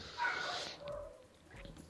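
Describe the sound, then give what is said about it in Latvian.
A dog lets out a sharp, fairly loud bark near the start, followed by a few softer yips and whines fading into quieter room noise. “Mans suns atkal pievienojas podkāstam.”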